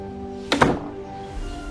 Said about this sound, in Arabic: أغلق العجوز الباب في وجه السندباد بسرعة